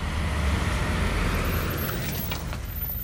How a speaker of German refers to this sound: Autos aus der Türkei fahren nach Griechenland und umgekehrt. Dabei durchqueren sie auch die Pufferzone auf der griechischen Seite.